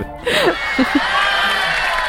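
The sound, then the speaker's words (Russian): A crowd cheers and applauds a guest's answer that she does not consider herself a feminist, with a broad wash of clapping noise and a few short whooping shouts rising above it, fairly loud throughout. “Все! Все! Все аплодисменты.”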